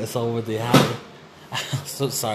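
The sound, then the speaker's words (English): A chair shifts with a brief creak and knock partway through as the person sitting on it messes around with it, while that person talks and laughs. “I'm just messing around with the chair while I'm doing this.”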